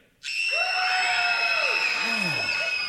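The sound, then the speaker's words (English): A large group of children, excited for Christmas Day, scream as loud as they can all at once on a count of three, a sudden sustained burst of high-pitched shrieking that starts abruptly and holds at full volume, overwhelming. “I'm going to count to three, and you're going to scream as loud as you possibly can, okay?”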